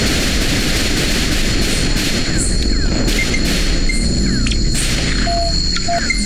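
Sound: gunfire shots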